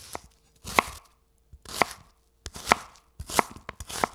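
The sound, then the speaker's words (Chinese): A knife chops vegetables on a cutting board (galangal into slices, lemongrass into sections, Thai eggplant into small pieces, abalone mushrooms into shreds) in short bursts of sharp, loud thuds, separated by brief pauses, with no talking. “南姜切片，香茅切段，泰国茄子切小块，鲍鱼菇切丝，也可以用袖珍菇取代。”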